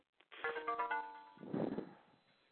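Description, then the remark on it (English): A phone notification alert sounds once, a short bright electronic chime with steady ringing tones lasting about a second, followed by a brief muffled, noisy burst. No one speaks. “Yeah, that was my phone. Whenever I have an update, it goes right to my phone.”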